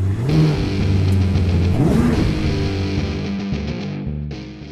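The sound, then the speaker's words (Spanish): A car engine revs loudly, a steady throaty rumble that climbs sharply in pitch partway through before settling back into a sustained, droning roar. “Arrancamos, motores. motores.”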